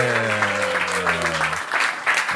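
An audience breaks into loud, sustained applause for a band coming on stage, a dense wash of clapping hands over a steady low tone that fades out midway through.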